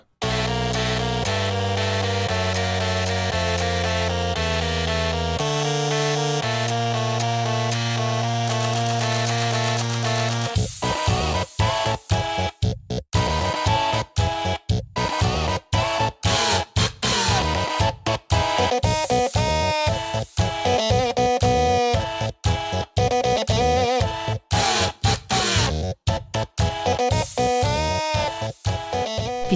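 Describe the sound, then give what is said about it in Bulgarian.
A tune played by printers, POS terminals, electric toothbrushes, epilators, irons and other household appliances: steady buzzing tones stepping between pitches, then choppy, rhythmic mechanical notes with abrupt cutoffs, loud, with no voices. “всичко е възможно, включително принтери, посттерминали, електрически четки за зъби, епилатори и ютии да изгащват духове с музика.”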